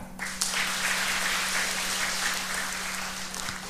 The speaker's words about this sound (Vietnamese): nên là đến với đạo phật là giơ tay lên tốt đó cho một tràng vỗ tay